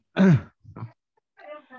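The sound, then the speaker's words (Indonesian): A loud cough bursts out with a rough voiced edge, followed by a couple of softer, shorter coughs or throaty sounds trailing off. “corona corona batuk batuk corona siapa tuh yang corona corona”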